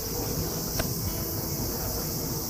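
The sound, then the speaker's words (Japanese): Cicadas drone in summer in a steady, unbroken high-pitched buzz that fills the background at moderate volume, with a brief sharp click partway through and no voices. “セミで夏ですね”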